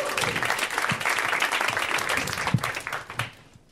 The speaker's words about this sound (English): Um, I got an applause break though.